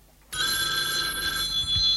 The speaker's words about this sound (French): Demain matin, le téléphone sonne.